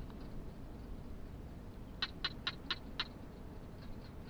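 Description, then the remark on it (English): A barking gecko calls with five quick, sharp clicks in an even, rapid series, fairly faint against a steady low rumble of wind. No one speaks. “You can hear the winds blowing and the quiet call of the barking gecko.”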